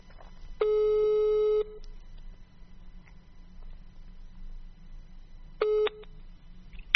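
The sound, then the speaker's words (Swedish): The ringback tone of an outgoing phone call: one steady, moderately loud one-second beep, a long quiet pause with faint background hum, then a brief second beep that cuts off. No talking. “Nu, ring, nu ringer det. Hoppas att ni hör det också.”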